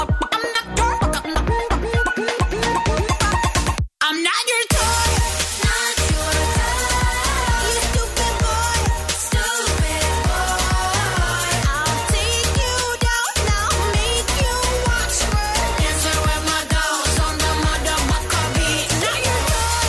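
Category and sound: pop song playing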